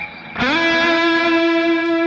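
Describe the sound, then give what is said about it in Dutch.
A single electric guitar note, played with the guitar's sustainer switched on, rings out with a bright, harmonically rich tone and holds at steady volume without fading, washed in reverb, with no talking. “En ehm eh, die sustainer. Even... Oh ja. Dat is altijd leuk met een beetje galm erbij.”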